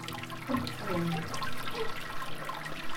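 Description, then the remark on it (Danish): Liquid runs steadily through beer-brewing equipment as the mash drains through the grain during lautering, a continuous rushing, gurgling flow with brief bubbling bursts, fairly loud, no voices present. “Det er at vi hører øllet. Vi hører mesken løbe igennem, når der bliver udmæsket her vores korn.”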